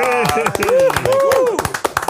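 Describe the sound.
A small group of about four people clap in quick, uneven bursts for about two seconds to welcome a guest, the sharp claps steady and fairly loud, with voices calling out and whooping over the applause.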